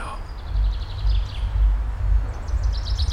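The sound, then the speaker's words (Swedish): Faint, repeated high bird chirps on a summer morning drift in and out over a steady, heavy low rumble of constant droning noise. “Vevar ner eh, rutorna motorn avslagen naturligtvis, och jag hör fåglarna kvittra eh, denna underbara eh, sommarmorgon.”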